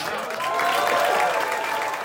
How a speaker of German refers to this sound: In der Künstlerresidenz Villa Aurora werden die Macher von Im West nichts Neues mit viel Applaus empfangen.